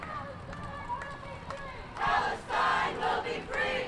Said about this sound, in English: On Election Day in New York City, thousands of people made their voices heard on the steps of City Hall. They shouted their demands in unison.